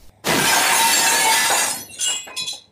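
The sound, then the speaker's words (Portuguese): A plate dropped in a kitchen crashes and shatters loudly, a sharp burst of breaking ceramic lasting over a second, followed by a couple of smaller tinkling fragments settling. “E aí vem alguém lá na cozinha, que é do lado do quarto dessa criança, e deixa cair um prato quebra esse prato e aí faz aquele barulho enorme, muito alto, muito forte.”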